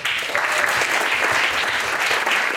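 An audience applauds steadily, a dense, even wash of many hands clapping at constant loudness throughout, with no voices standing out.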